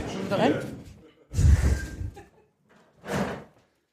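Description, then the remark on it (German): A door opens again and swings shut with a heavy thud in the middle, framed by shorter rustling bursts, while muffled voices are faintly audible. “Die Tür geht wieder auf.”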